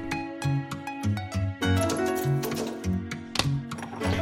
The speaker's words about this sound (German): Das Geräusch hier gehört zu einem Liebesbriefautomaten. So ein altes Ding an der Wand mit Knöpfen und wenn man eine Münze reinwirft, kann man sich einen Liebesbrief zusammenstellen lassen, je nach Anlass mit einer Prise Verzweiflung, Anbetung oder